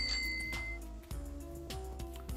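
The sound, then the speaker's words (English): A paletero's hand bell on his ice cream cart rings under a foggy gray sky in a quick series of bright strikes, each leaving a lingering metallic tone, over a low rumbling background with no talking. “Pigeons had taken over the power lines, and the paletero man's bell started ringing on his sneaky little ice cream cart.”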